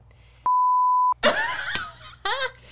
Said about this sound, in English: Edit that beep, out, please. Beep, Please beep that.